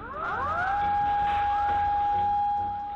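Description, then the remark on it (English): A sustained, steady tsunami warning siren tone sounds continuously in Tokyo, Japan, with rising sweeping tones layered in at the start, set against a dense background of noise. “And then the sirens started going off.”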